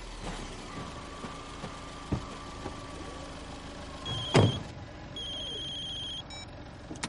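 A few soft clunks as people climb into a police patrol car, one into the front passenger seat, then one solid door thump, followed by a steady electronic chime from the dashboard. No one speaks.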